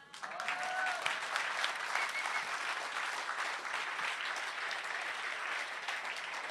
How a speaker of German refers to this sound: Und da die Orga sich natürlich nicht selbst loben darf, nochmal einen ganz großen Applaus für die Orga.